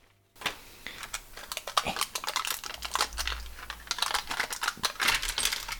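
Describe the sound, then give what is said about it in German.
An eight-sided die is rolled for healing in a tabletop role-playing game, rattling and clattering across a hard surface in a quick, dense burst of sharp clicks, fairly loud, continuing for several seconds with no one speaking. “Ja, Würfel, Würfelkullern ist wirklich ein tolles Geräusch.”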